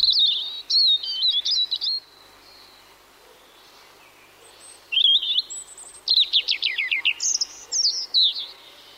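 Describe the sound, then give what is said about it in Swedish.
Rippling birdsong in bursts: warbled phrases, a pause, then a high drawn-out whistle leading into quick descending trills and further bright, high notes. No voices are heard. “Eh, men, men det man ska lyssna efter då det är de här den här porlande sången där varje sångstrof ofta inleds med några riktigt höga utdragna toner.”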